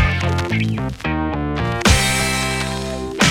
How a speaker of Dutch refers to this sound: Dus eventjes voor, voor, voor de zekerheid, er ging nu net een jingle waarschijnlijk en die hoorde ik niet. Dat klopt toch? Nee, dat klopt.